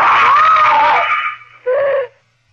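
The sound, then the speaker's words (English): A woman screams in terror, a long, loud, high-pitched shriek that wavers and fades, followed by a shorter second cry before silence. “A cold, cruel steel blade moving across my face, mocking me, and I screamed.”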